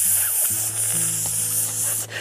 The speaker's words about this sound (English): Hiss.